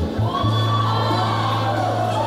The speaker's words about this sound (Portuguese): Louve ao Senhor. Dê gritos de alegria, de júbilo.